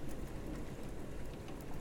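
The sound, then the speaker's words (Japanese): Heavy, steady rain pours down in a dense, continuous roar on a wildly stormy day, full, with scattered drops spattering across surfaces and no voices present. “どちらかというと晴れの日だったりとかまあ、曇りの日とかの方がね多いと思うのよ、まあ、雨降ってもこんなんじゃないみたいな毎日毎日こんな”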